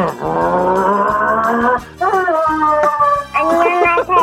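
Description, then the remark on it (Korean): A voice loudly imitates a racing car engine over a live phone call for an impression contest, a buzzing drone that holds steady, then revs up in pitch through several short bursts. “자, 경주차 소리 들어보겠습니다.”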